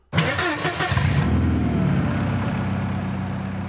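A car engine cranks with a quick rattling stutter for about a second, then catches and settles into a steady idle hum.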